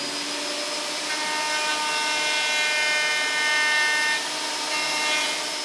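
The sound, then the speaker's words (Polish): A band saw whines steadily as it cuts wood along a traced outline for the back piece of a Stradivari model, a sustained high-pitched motor drone with bright overtones that swells slightly mid-cut, with no talking over it. “I teraz tak, tu już mamy odrysowane i to wyżynam na, na taśmówce”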